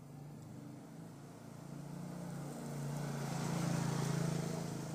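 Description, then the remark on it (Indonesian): A motorcycle engine drones past, its low hum swelling louder over a few seconds and then beginning to fade, with no voices over it. “bentar ada motor”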